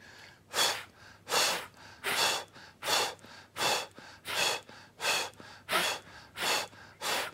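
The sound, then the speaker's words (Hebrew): Ten short, forceful breaths pushed out in a steady, even rhythm during a pelvic floor exercise, each exhale made while contracting the pelvic floor muscles, each a breathy burst separated by brief pauses, with no talking. “אני, אתם לא רואים את היד שלי, אבל תשמעו את הנשימה שלי. כל פעם שאני נושף, בעצם אני מכווץ את שרירי הגן.”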